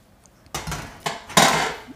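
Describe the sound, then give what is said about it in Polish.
Pasta and pesto being stirred in a pot, with scraping, clattering utensil strokes against metal in a few uneven bursts, the last one loudest and longest. No one speaks. “To trzeba wszystko wymieszać w garze.”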